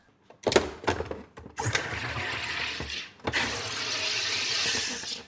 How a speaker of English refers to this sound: we recorded this in store and there's lots of fridges and machinery noises and aircon and trucks going past so sound quality is not up to our normal standard